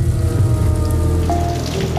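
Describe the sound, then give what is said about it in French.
Heavy rain pours down during very big thunderstorms in a dense, unbroken hiss, loud, with a steady low rumble beneath and no voices. “C'est un jour où il y a de très gros orages, il y a une pluie très forte”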